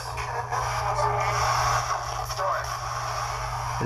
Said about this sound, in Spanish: Yo volví a escuchar I'm Here. Me costó mucho trabajo escuchar las, las otras dos voces. Pero sí entiendo a qué se refiere con la tercera voz. Y no sé si es estática o no, porque aquí no están jugando con la radio, esto es con un spirit box